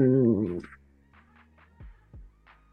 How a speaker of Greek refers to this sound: Ε, δεν ξέρω αν ακούστηκε η καρέκλα κανένα.